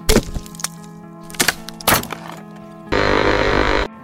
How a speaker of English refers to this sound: Come on, let's open this thing up. I want to test out my new crowbar.